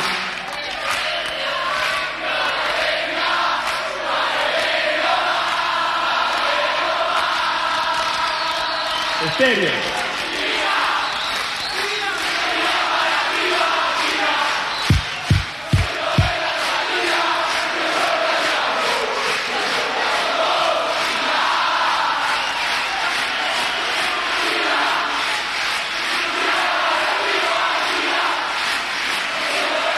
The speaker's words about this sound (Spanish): No sé ustedes, pero lo que yo escucho ahí es un montón de gente descargándose, sintiéndose identificada con lo que estaba pasando en ese momento del país, ¿no?